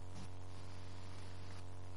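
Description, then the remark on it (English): A steady, low electrical hum from a church sound system drones continuously, with faint static hiss layered on top and no voices present. “If you are there, you can help us read this thing is still humming.”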